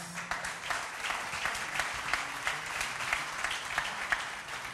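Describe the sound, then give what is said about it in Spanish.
A church audience claps together to welcome visitors before a service begins, in a steady, dense patter of many hands, moderately loud and sustained for several seconds with no voices over it. “Un aplauso.”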